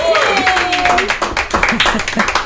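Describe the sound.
A crowd bursts into steady, loud applause, many hands clapping densely and continuously for a couple of seconds, with voices and a few cheers mixed in underneath.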